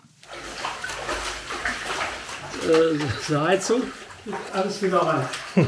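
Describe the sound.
Continuous sloshing of knee-deep flood water as someone wades through a house basement in Wassenberg, Germany, on the Dutch border, flooded after a dam sprang a leak; swishing steadily throughout while a man starts talking over it partway in.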